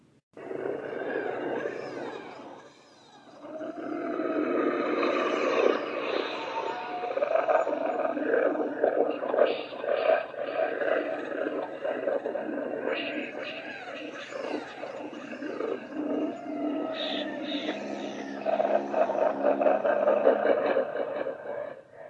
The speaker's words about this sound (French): des monstres noirs portant fièrement des cornes rougeâtres sur le crâne dégarni hurlent leur rage sur ceux qui se sont aventurés trop loin de leur tribu.